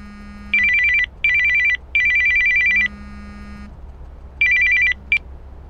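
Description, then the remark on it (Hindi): A telephone rings with bright electronic trills in three close bursts, pauses, then rings once more before a brief chirp, all over a faint low hum with no talking. “दरअसल इसकी शुरुआत हुई तब जब मेरे पास एक फोन कॉल आया”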